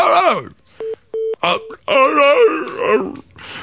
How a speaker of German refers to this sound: Bam, bam, bam! Die Vorwahl. Chock, chock! Jede Nummer. Chuck, chuck.